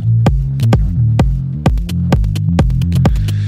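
Electronic dance music plays loudly, a steady pounding beat of sharp hits over a deep, throbbing bassline with shifting low tones, and no voices.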